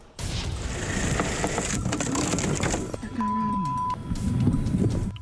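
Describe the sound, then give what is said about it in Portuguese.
A car lurches and falls through a makeshift wooden walkway in an indigenous forest reserve, with cracking, splintering wood and heavy clunks, a steady tone briefly sounding while voices talk over the commotion. “Nosso carro caiu em uma das passarelas improvisadas.”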